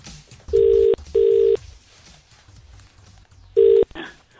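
Phone line ringing tone as radio station Hit 105 calls Cavendish Road State school: two steady buzzing rings close together, a pause, then a third ring, loud and clear over a quiet, slightly noisy background with no one talking.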